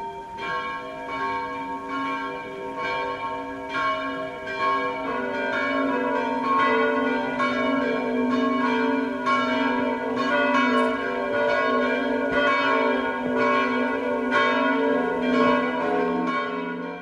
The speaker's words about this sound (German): hat die prächtigen Renaissanceglocken der Stiftskirche besucht